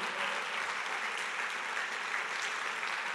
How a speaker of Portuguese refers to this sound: Se for aplaudir Jesus, pode aplaudir direito.